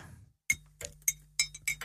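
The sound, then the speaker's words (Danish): Porcelain cups and saucers clink together in a quick, irregular series of about six bright, ringing taps over a faint low hum as coffee is poured into a cup, with no one speaking. “Jeg hælder lige op til dig lige et og øjeblik.”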